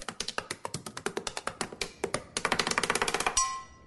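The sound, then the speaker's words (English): A woman in an office taps her pen rapidly and relentlessly against a hard surface, a dense string of sharp clicks that speeds into a frantic drum-like flurry before stopping abruptly. “Right up there with the woman who taps her pen like she's doing a drum solo at a sold out arena.”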